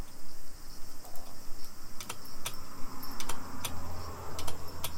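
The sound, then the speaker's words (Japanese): Sharp, dry clicks from a stock sound-effect file distributed by Adobe Creative Cloud, played from behind a microphone, tap out an irregular rhythm, some in quick pairs, over a faint steady hiss. No one speaks; the clicking is clear, like keys being pressed. “なんかカチカチ言ってんの聞こえるかなちょっとボリューム上げるので。”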